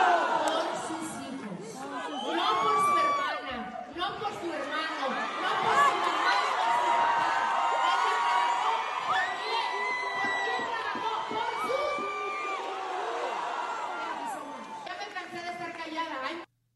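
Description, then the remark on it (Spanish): A large crowd, stirred up by the words of Chiquis, cheers and shouts continuously, with overlapping excited voices, whoops and high-pitched yells forming a loud, dense roar that holds steady throughout before cutting off abruptly. “Oye, toda la raza está enardecida con las palabras de Chiquis, ¿eh?”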